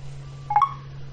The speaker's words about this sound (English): So I'm going to put the keyboard in number mode, and that's L4, bottom left hand side. I'm going to type in my PIN number using the keyboard. Two.